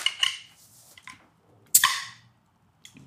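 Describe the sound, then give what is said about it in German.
The crown cap of a bottle of Lowlander Porter beer is pried off: light metallic clinks first, then one sharp, bright pop followed by a brief hiss of escaping gas that quickly fades. No one speaks. “Ein stylischer Kronkorken, eine stylische Flasche mit einem hoffentlich stylischen Gehör. Hier kommt das Lowlander Porter.”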